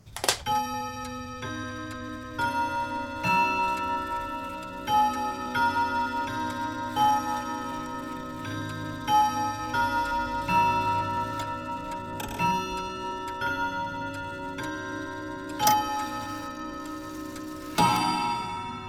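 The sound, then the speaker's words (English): A news segue jingle built around a steady clock ticking, with sustained tonal chimes and periodic accented hits keeping a regular rhythm throughout, loud with no voices. “This is the Vapor Clock News”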